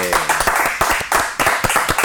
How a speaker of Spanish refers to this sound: Vamos a pedir un aplauso grande para recibir al Cardenal Domínguez.